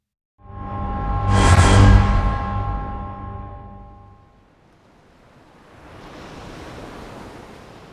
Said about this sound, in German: Das Mondlicht glitzerte auf den sanften Wellen, die das Schiff durch die endlosen Weiten des Ozeans trugen. Die Luft war erfüllt von salzigem Duft und dem fernen Rauschen der Brandung.